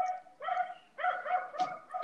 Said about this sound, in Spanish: Ay, mi perro. ¿Quién verga está ladrando? Yo. ah, perdón. Wow, Wow, wow, wow. Qué pendejo. Pues ya cállate, ¿no? Maten al chihuahua.